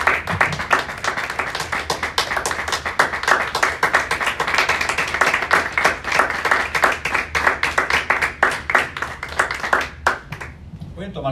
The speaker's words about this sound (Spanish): Le damos un aplauso más al Señor Jesús, hermanos, mientras usted toma su silla.